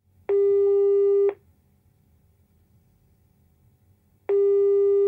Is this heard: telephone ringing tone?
yes